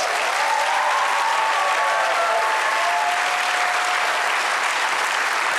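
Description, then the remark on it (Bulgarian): An audience applauds steadily in response to the call to clap if they believe, dense clapping filling the room at a constant loud level for several seconds, with faint voices or cheers rising briefly beneath the applause. “Ръкопляскай, ако вярваш.”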